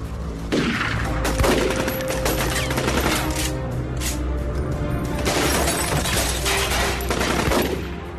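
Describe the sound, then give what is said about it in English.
A sustained, loud burst of gunfire as shooters kill Castellano getting out of his Lincoln at a steakhouse entrance: many rapid shots crackle and overlap for several seconds, dense and chaotic, with no voices. “The moment Castellano started to get out of the car, the shooters just blew him away.”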